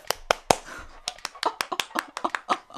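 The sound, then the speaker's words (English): A single person clapping for herself, about fifteen sharp, crisp claps in quick succession with a slightly uneven rhythm, moderately loud and with no talking. “I'm gonna clap for myself.”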